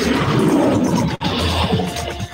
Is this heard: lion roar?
yes